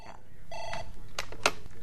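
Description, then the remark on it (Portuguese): A brief electronic telephone ring sounds once in a radio station newsroom in Vila Nova de Gaia, a short buzzy tone, followed by a few sharp clicks and clatters over a busy room murmur with faint voices. “atende os telefones na redação da Antena 1 em Vila Nova de Gaia”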